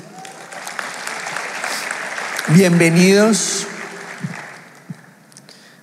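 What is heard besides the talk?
audience applause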